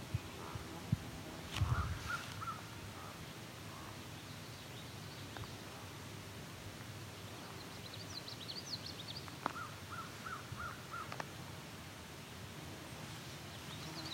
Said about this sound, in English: also a raven here too. That is a crow I'm looking at, but there are two ravens calling each other.